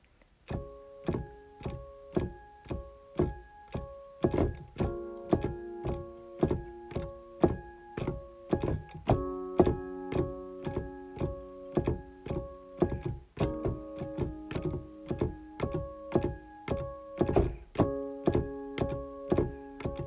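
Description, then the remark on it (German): Steady, rhythmic clacking of electric piano keys, sharp mechanical thunks on every note, heard alongside quiet sustained tones of a song being played very softly on an e-piano, with no voices. “Ich habe das selbst auf dem E-Piano gespielt, deswegen hört man auch so gut die Tasten.”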